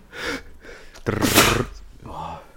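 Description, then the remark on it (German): A single loud sneeze bursts out after a couple of short, breathy inhales, followed by a softer voiced exhale as it fades. “Warte, ich muss niesen.”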